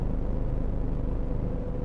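A steady, deep rumble from inside a car driving home from work, constant and fairly loud throughout with no speech, just the continuous low drone of engine and road.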